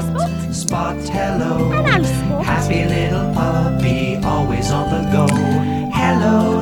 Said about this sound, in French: Je ne sais pas si tu vas reconnaître le générique puisque c'est le générique anglais et euh, ça faisait comme ça.